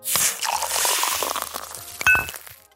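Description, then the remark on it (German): Drinking glasses clink together in a toast, one bright ringing tap near the end, after a stretch of fizzy liquid noise and soft rustling. Fairly loud, with no talking. “Es wird also wieder spannend, deswegen jetzt viel Spaß und Prost!”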